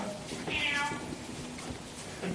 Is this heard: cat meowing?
yes